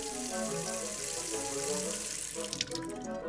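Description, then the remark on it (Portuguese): Tap water runs steadily into a sink in a loud, continuous rush while strawberries are washed under it, with a few brief splashes and clinks near the end. “Também é muito importante lavar os alimentos antes de prepará-los.”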